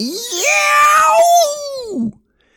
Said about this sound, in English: But when I was downstairs in the kitchen, I heard a blood curling yell.